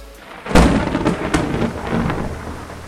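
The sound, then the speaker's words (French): Heavy rain pours steadily in New York on a Friday evening at 6 pm while a clap of thunder cracks and rumbles, followed by further lower rolls of thunder under the constant downpour. No one speaks. “Sous une pluie battante à New York à 18h le vendredi soir, une dizaine de limousines noires arrivent au siège de la Fed, immense forteresse au sud de Manhattan.”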